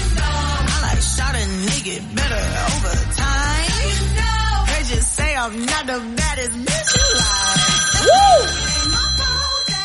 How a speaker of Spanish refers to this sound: ¿Tenemos a alguien en la ah, línea? Está, sonando el teléfono. Está sonando el contesta,